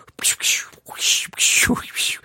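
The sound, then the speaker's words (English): A voice imitates water skiing with a quick series of breathy, hissing whooshes, fairly loud, separated by short gaps, with a brief lower voiced sound near the end. “But it's like, I read the first paragraph and it's like, or what's the sound effect for water skiing?”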